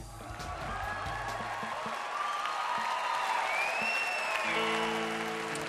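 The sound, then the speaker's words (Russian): A large concert crowd applauds and cheers in a dense, steady roar for several seconds, with shrill whistles sliding over it and faint low musical tones at the start and end. “Зал встречал э, песни ликованием.”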